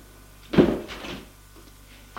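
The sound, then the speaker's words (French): An elevator door opens at the third floor as people step out, with a short thump and then a brief sliding rush that fades within about a second. It is moderately loud, over a faint steady hum. “Ils entrent dans l'ascenseur et au troisième étage, ils sortent de l'ascenseur”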